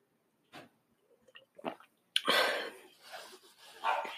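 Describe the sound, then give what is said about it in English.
Someone sips tea: a few soft mouth noises, then a longer, breathy slurp with no one talking. “Um, I'm sorry, I have some tea. I'm just going to take a sip. So if you hear little pauses, I'm just taking a sip.”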